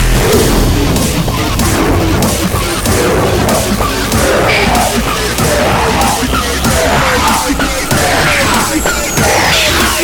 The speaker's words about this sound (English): The 808 bass drum is that booming low boom that you hear on a lot of rap songs.